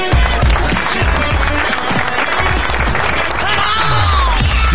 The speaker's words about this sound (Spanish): Muchísimas gracias, grandes aplausos.